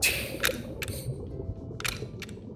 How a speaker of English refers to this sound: you hear the ticking of the clock, and suddenly, like on a on one of the ticks, it just keeps going